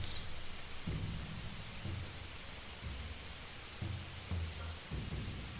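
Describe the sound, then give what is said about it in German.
Steady rain hisses throughout while low thunder rumbles roll in repeatedly, several deep booms recurring every second or so beneath the downpour, with no voices present. “einmal 8 Damage und weil ich treffe, entsteht jetzt wieder, ähm, das hört sich an wie ein wie eine. Ja, wie ein Blitz oder ein Donner.”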